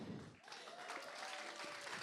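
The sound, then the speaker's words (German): A crowd breaks into steady applause as a challenger is called to the front, dense overlapping clapping that holds at an even, fairly loud level throughout, with a faint whistle-like tone threading through the middle. “Komm du doch mal nach vorne. Ein Applaus.”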